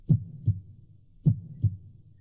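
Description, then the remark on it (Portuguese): A slow, muffled heartbeat thumps in paired lub-dub beats, two pairs in steady rhythm, low and dull as if heard through a wall, with no voices. “Tudo que eu ouvi foi um pulso lento, condensado, como uma máquina de trabalho.”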